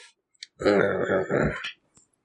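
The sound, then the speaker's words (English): A low, grumpy grunting grumble from a single voice, about a second long, rising and dipping in two drawn-out pulses, fairly loud, with quiet before and after. “Grumble, grumble.”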